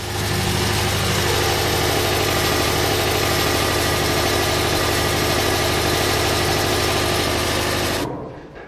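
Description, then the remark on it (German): A large biogas combined heat and power engine in Wildpolsried, Allgäu, burning methane gas to make electricity and heat for house heating, runs steadily, a loud, constant droning hum with strong low rumble and mechanical rattle, continuing without pause until it cuts off abruptly near the end. “Was Sie hier hören, ist das BHKW, also die Maschine, die aus dem Gas Strom und Wärme macht.”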